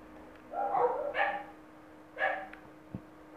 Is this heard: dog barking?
yes